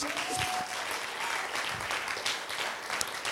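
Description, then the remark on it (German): A crowd applauds steadily for the production team, dense overlapping claps filling a few seconds at an even loudness, with no voices standing out. “Ey, lass uns mal unserem Production-Team so einen fetten Applaus geben.”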